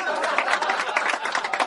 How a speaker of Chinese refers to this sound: 掌声鼓励鼓励。